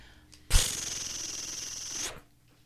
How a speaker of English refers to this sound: All right, here we go. Page turn noise.